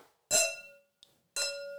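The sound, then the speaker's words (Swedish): Two bright glass clinks ring out about a second apart, each with a sustained shimmering tone, like drinking glasses tapped together in a toast, with a faint tick between them and no voices. “dubbelskål. Skål! Skål!”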